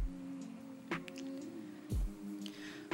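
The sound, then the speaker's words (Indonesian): Frogs croak after rain in a faint, steady chorus, with a low droning hum and a few louder croaks popping out about once a second, no voices. “Buat kalian yang lagi dengerin podcast gue, maaf ya kalau misalkan dalam rekaman ini agak berisik, Soalnya gue tag podcast ini habis hujan, makanya banyak suara kodok.”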